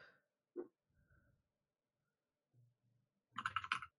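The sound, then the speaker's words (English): A few scattered soft mouse clicks on a Steam page, then a quick flurry of keyboard typing near the end, fairly quiet, with no talking. “I'm clicking it.”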